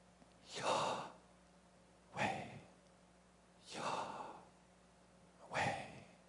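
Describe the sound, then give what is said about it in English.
Someone breathes the divine name YHWH as four slow, airy breaths with no voiced sound, each a soft rushing whoosh separated by short silences in a steady rhythm. “So the rabbis tell us the consonants YHWH were meant and written for the purpose of imitating and replicating breath.”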